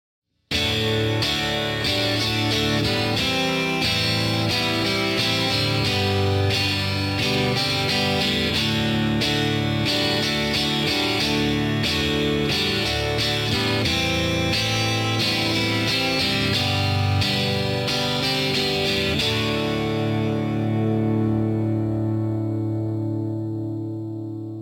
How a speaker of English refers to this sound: This last chorus really hangs on that last chord, and rather than being seven bars, it's pulled out to 10.